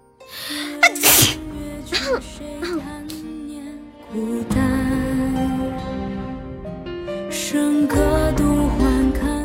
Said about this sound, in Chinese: 等一下，我要打个喷嚏。